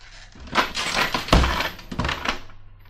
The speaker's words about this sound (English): I shouldn't have let it slam. Every time I do it breaks the dishes in the house across the street.